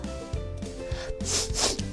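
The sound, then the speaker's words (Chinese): An uncle gives two quick, airy sniffs through the nose, hissy and breathy, one right after the other, over a steady low background hum. “叔叔吸了吸鼻子”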